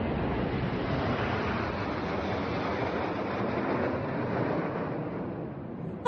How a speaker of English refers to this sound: That's the sound of the Royal Air Force at the Platinum Jubilee for Queen Elizabeth II, Britain's Queen.